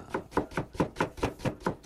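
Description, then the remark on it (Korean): Steady, rhythmic chopping on a cutting board in a kitchen at dawn, about eight sharp knife strikes spaced evenly, with a light clattering quality and no voices, as a birthday meal with seaweed soup is prepared. “제가 그렇게 말했는데도 남편 생일날 꼭 또 새벽부터 주방에서 뚝딱뚝딱 소리가 들려오지 뭡니까?”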